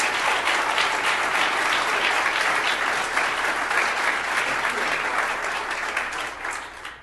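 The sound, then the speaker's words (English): A sustained round of applause from an audience for Nick Finck, a dense, steady crackle of clapping that stays loud for several seconds before thinning out slightly at the end. “So first of all, I, we should give him a, a huge round of applause.”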